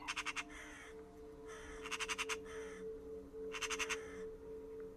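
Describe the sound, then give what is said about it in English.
A raven, flying by and landing on a branch, calls in three bursts of rapid, rasping caws, each a quick series of harsh croaks, fairly loud over a steady low hum of background noise. “A raven flies by, lands on a nearby branch.”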